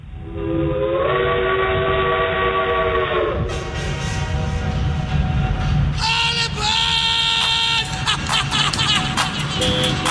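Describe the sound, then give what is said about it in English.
A steam train's whistle sounds in long, steady, shifting tones over a continuous rumbling chug of the engine, loud throughout, with no one talking; presented as Thomas the Tank. “Who's that puffing down the track?”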